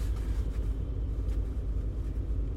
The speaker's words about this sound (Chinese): 所以，呃，你们常常会听到只有单独我本人的声音，或者是顶多就是车外的一些，呃，可怕的汽车声、摩托车声，就是尤其是改造的车子。